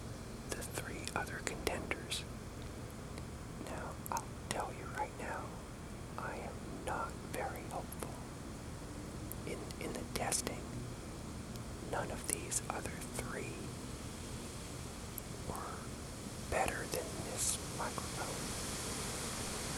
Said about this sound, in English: it's just the wind. And it's, it's really not super, super windy. It's just the way it sounds in this microphone.